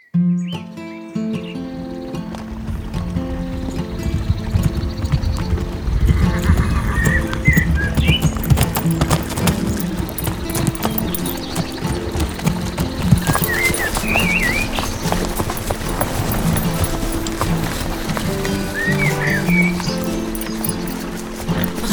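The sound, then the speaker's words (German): Horse hooves clip-clop at a steady walking rhythm for the whole stretch, fairly loud, over a dense tonal backdrop with a few high chirps scattered through. “Endlich am abgelegenen Übergabetreffpunkt angekommen, schwang sich Imelda vom Pferd”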